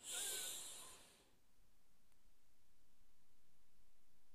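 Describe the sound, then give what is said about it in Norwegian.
A single deep, airy inhale through the nose during a guided breathing exercise before sleep, fairly loud, lasting just over a second before it stops and leaves near silence. “Pust godt inn med nesa.”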